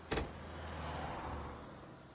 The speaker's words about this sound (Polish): uderzyłeś parę razy, rozniosło się to echem i słyszysz, bo nie sposób, żebyś nie słyszał, że otwierają się drzwi i zamykają się.